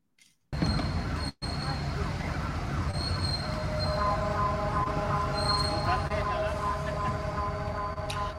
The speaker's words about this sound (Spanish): se baja el señor productor, empieza a grabar y es que entonces le empieza a sonar la alarma sísmica. Así fue como a nosotros nos tocó el sismo